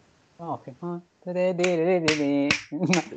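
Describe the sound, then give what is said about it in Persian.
A few sharp finger snaps, roughly evenly spaced, cut through continuous voiced humming or wordless vocalizing that carries on under them. “بشکن من خیلی خواهی این بشکن”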